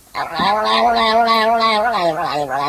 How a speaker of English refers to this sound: That's the dog. That's a dog. that is a dog.